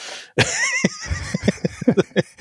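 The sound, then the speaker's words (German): The chair the speaker is sitting on, in a hotel in Dubai, squeaks loudly, starting with a long, wavering high-pitched squeal, then a run of shorter irregular creaks and knocks, with no voices. “Ach so, ja, der, der Stuhl, auf dem ich sitze, der quietscht auch fürchterlich.”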